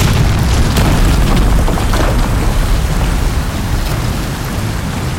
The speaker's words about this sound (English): We could hear the water pouring down as though from a great height.